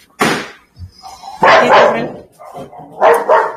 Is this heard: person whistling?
no